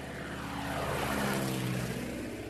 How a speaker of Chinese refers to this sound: 飞机飞过天空会留下印记，